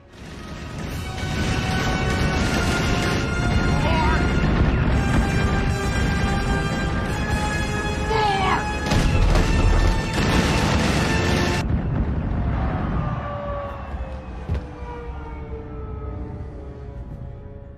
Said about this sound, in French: Du coup, j'envoie le générique du plus de news.